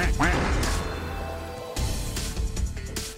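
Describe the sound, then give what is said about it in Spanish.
A loud cartoonish duck quack sound effect rings out right at the start, followed by a dense, noisy clatter of effects that continues for a few seconds. “¿Qué pasó, Pato Cuacuac?”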